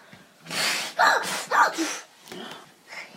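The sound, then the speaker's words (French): A person blows hard several times in a row, loud breathy gusts imitating a huffing wolf trying to blow a little pig's house down, with short gaps between puffs and a softer breath trailing off at the end. “Je vais souffler et la maison et la maison s'envolera. Tu souffles, tu souffles toi.”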